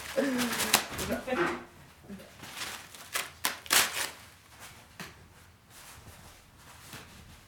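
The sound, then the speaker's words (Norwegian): Crinkly rustling of paper towels being pulled and crumpled to wipe up a spill, in short, irregular bursts, with a brief voice near the start. “Jeg skal ta litt papir.”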